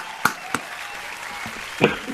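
Scattered hand claps over a soft, continuous wash of applause-like noise, applauding the registration of the Asociación de Atrofia Multisistémica Habla Hispana. A few sharper claps stand out, one early, one shortly after, and another near the end, at moderate volume.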